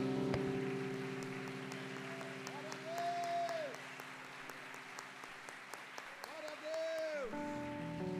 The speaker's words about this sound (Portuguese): Você pode aplaudir Jesus aí, irmão?